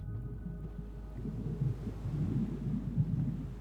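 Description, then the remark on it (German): A steady, low rumbling roar of the sea, with surging, rolling swells that rise and fall in loudness over a constant deep rush; no voices are present. “Du hast das Rauschen.”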